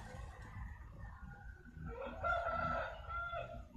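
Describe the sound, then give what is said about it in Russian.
A rooster crows once, a drawn-out, strained cock-a-doodle-doo rising over a steady low rumble of background noise, moderately loud. “Нет, не этого петуха, а другую вечеринку.”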